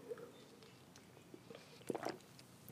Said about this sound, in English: sorry, I had to take a sip of water.